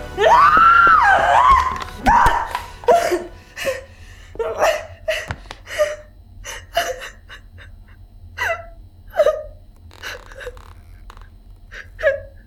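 A person cries loudly, starting with a drawn-out wail, then breaks into a long series of short, gasping sobs that come in uneven bursts and slowly grow fainter.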